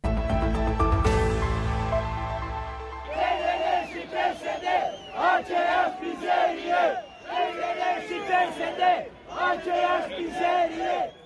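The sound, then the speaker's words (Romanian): A large crowd boos and jeers in loud, repeated rhythmic bursts at a Union Day national celebration in Iași, Romania, following a short sustained musical tone at the start. “fasole, ciolan și huiduieli.”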